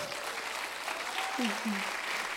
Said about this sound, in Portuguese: Aplaudo o Senhor pela vida deles.